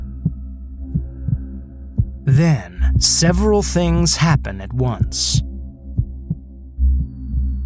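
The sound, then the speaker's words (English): A steady, low heartbeat, four hearts beating in a room, thumps in a regular rhythm throughout, continuing underneath as a voice speaks a short line in the middle. “There's a moment in which I'm certain I can hear the four hearts beating in the room.”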